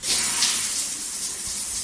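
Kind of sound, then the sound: household object, hot shower water running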